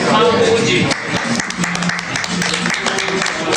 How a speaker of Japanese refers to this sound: 僕たちのラジオで拍手初ですよ